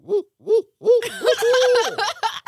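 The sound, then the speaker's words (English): A person vocally imitates an owl, giving three short rising-and-falling hoots, then a longer drawn-out hoot as others burst into laughter and chatter. “that was a pretty good owl.”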